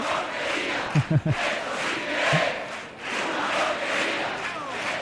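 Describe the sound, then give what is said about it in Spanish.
A crowd at the presentation of a Cádiz carnival chirigota group shouts and roars together in a loud, sustained wash of voices, with a few sharp, higher yells breaking out over the din early on. “Esto sí que es una porquería, gritar público.”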